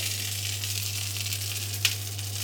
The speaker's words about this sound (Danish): Lyden er en frankfurter, der steger.